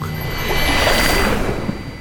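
A shimmering magical chime, a magic spell flowing through a train compartment from a glowing book, swells into a bright, sparkling wash of tones with sustained high ringing, rising and fading over a couple of seconds without any talking.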